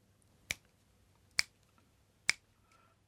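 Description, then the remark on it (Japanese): Three crisp finger snaps at an even, steady pace, each a sharp bright click with nothing else in between, keeping time, with a fourth snap just starting at the end. The snaps keep rhythm for an improvised jazz-style saxophone arrangement. “じゃあ僕が指パッチンで指パッチンっていうのかはい、はい、えー、リズムを取りたいと思いますじゃあいきますよ”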